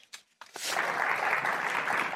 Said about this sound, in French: À leur arrivée, ils sont applaudis comme des héros.